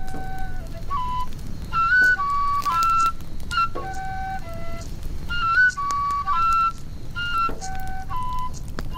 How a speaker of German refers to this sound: Dann holt er seine Flöte hervor und stimmt am Lagerfeuer eine Melodie an.